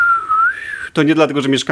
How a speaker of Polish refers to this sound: E, oczywiście e, na początek cię zapytam, co tam u ciebie dzisiaj słychać, poza wichurą za oknem.